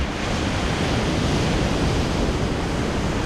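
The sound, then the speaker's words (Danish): Steady, broad roar of surf from large, broad waves rolling in and breaking on the North Sea coast on a nearly windless late evening. A dense continuous wash of water noise with no pauses and no voices. “Alligevel er der store bølger, der brede og mægtige kommer rullende ind mod land.”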